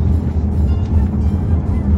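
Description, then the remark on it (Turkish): Steady, heavy low rumble of a car cabin while driving, a continuous engine and road drone with no breaks, fairly loud throughout. “Sizi arabadan dinliyorum.”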